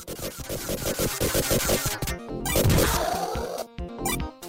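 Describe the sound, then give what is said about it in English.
Busy burst of electronic combat effects from a Sega video game, made by its sound chip: rapid rhythmic hits, crashing smashes and harsh zaps layered over a pulsing synthetic bed, loud and dense with a few abrupt cutoffs. “Hey, here comes actual combat. I should have told you it was combat, but here you go.”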